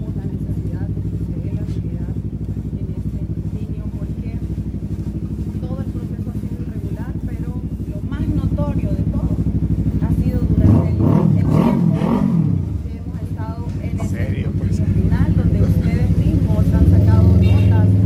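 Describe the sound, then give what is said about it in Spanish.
Continuous street traffic rumble with passing engines, including motorcycles revving midway, loud and low-pitched, with muffled voices underneath as a woman speaks among the motorcycles. “Voy a tratar de evitar eh, escuchar el ruido de la calle y escuchar lo que dice.”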